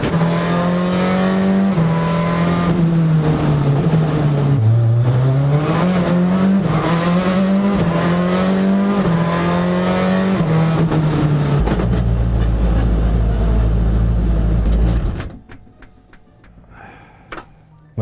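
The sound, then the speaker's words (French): A Citroën Xsara WRC rally car drives hard, its loud engine climbing and dropping in pitch through gear changes, then settling into a deep rumble before cutting away to near silence. “Essai Citroën Xsara WRC : Reine des rallyes”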